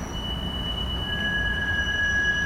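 A tram rumbles along with a steady low roar while its wheels give off sustained high-pitched squeals, one piercing tone growing louder partway through. No one speaks.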